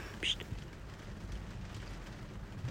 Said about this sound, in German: Und was mir gerade auffällt, es regnet zum ersten Mal, seitdem wir in den Bahamas sind.